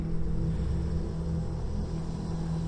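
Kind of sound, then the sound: vehicle, car engine approaching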